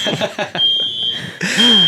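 A shrill, high-pitched alarm beeps from a computer in long steady tones, fairly loud, while a person talks and laughs over it.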